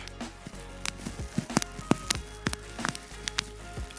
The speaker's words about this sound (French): du papier bulle